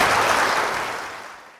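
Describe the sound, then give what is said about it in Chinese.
A short burst of applause celebrating the wendan pomelo having the lowest calories, a dense crackle of clapping that starts loud and steadily fades out over under two seconds, with no voices. “终于掌声鼓励了。”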